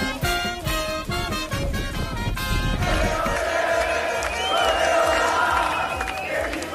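Colombian football fans, about 25,000 of them, cheer and chant together in a loud, sustained roar in the stadium in Samara, Russia, at the World Cup match Colombia vs Senegal, voices blending into rhythmic shouts over a constant crowd din with no pauses.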